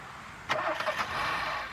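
A car engine cranks with a few quick, choppy bursts, then catches and settles into a steady, fairly loud idle hum, at the Heimatsheim rest stop on the A61 towards Erftstadt, with no one talking.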